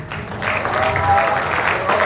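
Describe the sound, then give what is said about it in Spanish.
Steady audience applause, a dense crackle of many hands clapping that holds at an even, fairly loud level for a couple of seconds, with a faint voice underneath. “Dele un aplauso grande a él.”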